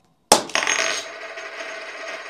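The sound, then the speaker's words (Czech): A tossed coin lands with a sharp metallic clink, then a second bounce, followed by a bright ringing shimmer that slowly fades out. No voices are heard. “Varuju cyklisty, varuju lidi, kteří třeba krájí cibuli teďko, varuju lidi, kteří dělají cokoliv nebezpečného, trošku to cinkne.”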